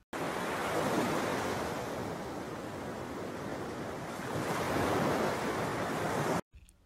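Steady ocean surf washes over a beach, a broad continuous roar of breaking waves with gentle swells in loudness, heard alone with no voices before it cuts off abruptly.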